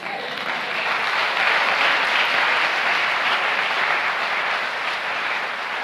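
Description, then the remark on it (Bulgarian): A crowd applauds steadily for about six seconds, a dense, even wash of many hands clapping at a constant, fairly loud level with no voices standing out. “Всеки път, когато ръкопляскаш и даваш слава на Бог, знаеш ли какво казваш?”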